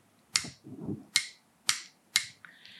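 A lamp switch, held near a microphone, clicks four times, crisp, with uneven gaps between the clicks and a soft handling rustle after the first one.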